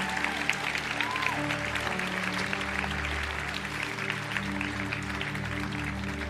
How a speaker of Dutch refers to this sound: Zullen we even een groot applaus geven